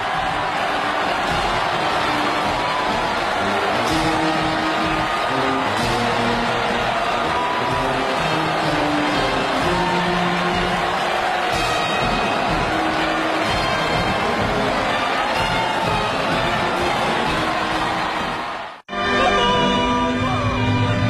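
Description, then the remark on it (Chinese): Long, warm applause fills the Xi'an Olympic Sports Center stadium on the evening of the 15th as Xi Jinping and Peng Liyuan walk onto the rostrum and wave, before the 14th National Games opening ceremony; a dense, steady roar of clapping from a huge crowd holds loud for nearly twenty seconds before cutting off abruptly. “十九时五十八分，在欢快的乐曲声中，习近平和夫人彭丽媛等走上主席台，向观众挥手致意，全场响起长时间热烈的掌声。”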